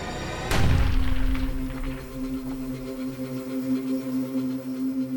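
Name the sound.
single gunshot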